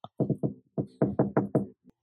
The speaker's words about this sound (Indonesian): Ketok dulu, ketok dulu. Mbok menawa orangnya lagi di dapur.